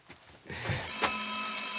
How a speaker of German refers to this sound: ist nicht sehr höflich, nicht ans Telefon zu gehen, wenn man es eigentlich könnte